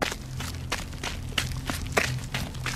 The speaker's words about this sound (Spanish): El sonido de una persona corriendo sobre las piedras en esta ocasión sí me alertó por completo, pues claramente pude sentir que aquel espíritu rodeó la parte de enfrente del camión.